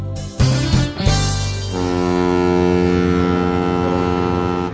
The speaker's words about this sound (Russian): Послушайте сценку в порту и попытайтесь понять, что говорится о доске и о серфере.